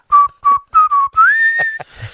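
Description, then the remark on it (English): A person whistles a short tune: three quick clipped notes, then a long rising note held steady before trailing off, loud and clear with no talking. “Start whistling.”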